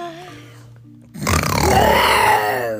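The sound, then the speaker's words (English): While reading a story aloud, a voice imitates Simba the lion cub trying to roar at hyenas: after a quiet, low hum, a loud, strained growl, a squeaky little rumble, bursts out and holds for about a second and a half, its pitch bending up and then down. “Simba took a deep breath and tried to roar.”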